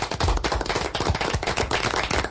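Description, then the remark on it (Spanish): Audience applause in tribute to Colombian football goalkeeper Leandro Castellanos: a dense, steady crackle of many hands clapping at once, loud and sustained for the whole stretch with no voices over it. “Solo podemos decir que con este aplauso hacemos sentir nuestra emoción.”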